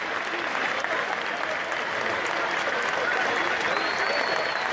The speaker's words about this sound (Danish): men der er ikke et minut stillhed, der er simpelthen et minuts øh, klapsalver.